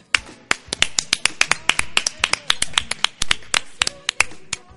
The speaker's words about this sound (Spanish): Es Aplauso para César, mira. Ahí. se escucharon. ¿Cachaste?